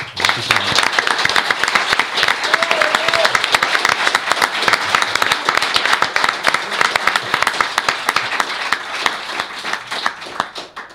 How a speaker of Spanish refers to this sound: Yo creo que llegados a este punto y para finalizar, lo que te mereces es que te demos este gran aplauso. ¿no?